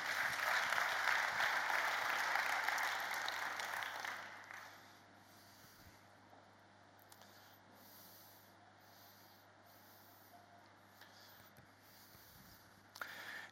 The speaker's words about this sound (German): Mach mal einen Applaus.